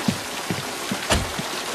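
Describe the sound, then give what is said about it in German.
Heavy rain pours down in a steady, dense hiss, with occasional low thuds of drops striking a surface, in the motel check-in scene of the film Psycho. There are no voices. “Gee, I'm sorry I didn't hear you in all this rain.”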